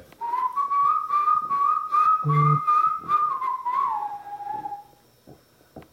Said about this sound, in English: Uh, it starts off with that kind of whistling.